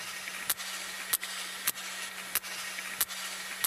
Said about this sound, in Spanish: Clic, clic, clic, clic. Eso que suena lo está haciendo el, el el cachalote. Sí, ¿eh? sí, con la nariz.